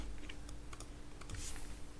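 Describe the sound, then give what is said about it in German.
Soft, irregular clicks of someone typing on a computer keyboard, a handful of quick keystrokes with short pauses, fairly quiet over a steady low hum. “alles, alles tippt schon unauffällig ein.”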